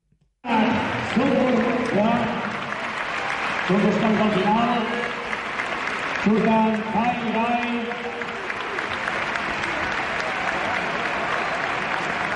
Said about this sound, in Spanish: Ovación cerrada, Kyle Guy.